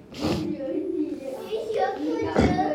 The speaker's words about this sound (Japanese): 今この礼拝堂にも子どもたちがいて騒いでいますけれど